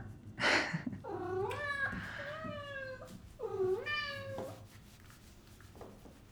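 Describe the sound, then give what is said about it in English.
A feral black cat meows twice in long, drawn-out, rising-and-falling cries, with a short breathy burst just before and a quieter pause between the calls. “Just a brooding, divorced woman in her mid 30s talking to her only friend, a feral black cat.”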